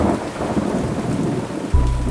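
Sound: rain and thunder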